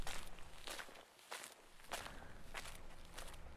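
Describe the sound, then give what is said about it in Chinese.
A steady series of soft footsteps, about six unhurried steps with crisp, scuffing impacts at an even pace, heard alone over a quiet, faintly hissing background with no one talking. “北京时间二零一九年八月十二号，周一晚上十一点零四分五十秒，我把手臂放在面前的桌子上，和你一样，安静的听着这一段脚步的声音。”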